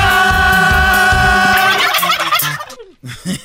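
turkey gobbling

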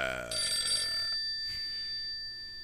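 telephone ringing

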